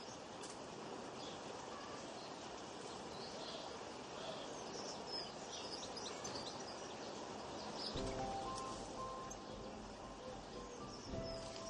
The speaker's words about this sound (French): Allongé au soleil, profitez du bruit des oiseaux et du vent.